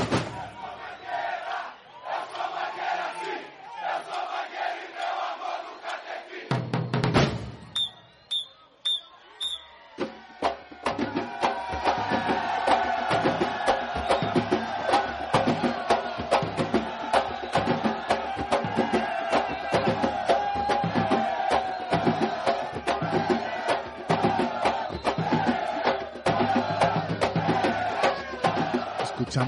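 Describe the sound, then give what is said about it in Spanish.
A large crowd roars at the Sambódromo on Avenida Sapucaí in Rio de Janeiro, then after a few sharp whistle blasts a samba school drum section launches its esquenta, the warm-up at the start of rehearsal with drums tightened to the maximum, into a loud, driving, steady rhythm over the cheering crowd. “el esquenta batería, el calienta batería, que antiguamente se hacía para calentar los tambores.”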